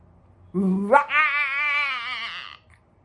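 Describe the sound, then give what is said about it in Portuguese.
A person voices a loud, imitated war roar of the character Bima: a brief low growl that sweeps sharply upward into a strained, sustained bellow, held for about one and a half seconds before cutting off. “Ele berra aquele som espetacular guerra.”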